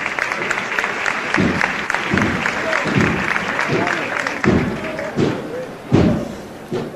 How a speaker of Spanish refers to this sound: Vuelven a romper los aplausos.